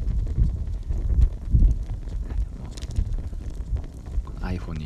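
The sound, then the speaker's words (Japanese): A campfire crackles close to the microphone, with scattered sharp pops over a heavy, wind-like low rumble; a voice briefly begins speaking near the end. “火がつきそうでなぐらい近づいてますけども聞こえてるかな”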